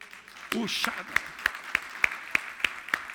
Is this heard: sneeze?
no